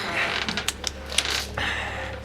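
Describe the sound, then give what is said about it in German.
The door of an old observatory creaks open slowly, its drawn-out groaning hinge broken by a few sharp clicks and ticks, fairly loud with no voices. “Hier ist die Tür, sie ist offen.”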